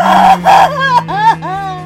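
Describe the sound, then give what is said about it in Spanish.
A single voice puts on a theatrical, over-the-top sobbing wail, with breathy bursts giving way to rising and falling whimpers, loud, clearly imitating crying. “Ahora voy a ah. seguir llorando.”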